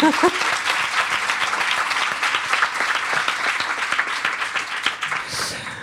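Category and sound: crowd, audience applause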